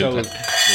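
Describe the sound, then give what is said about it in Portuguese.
Wine glasses clink together in a toast, their bright ringing tones sustaining briefly before a second touch rings out, with faint murmuring voices underneath. “Uh, nós, quando brindamos, dizemos sempre: a água é benta, mas o vinho é sagrado.”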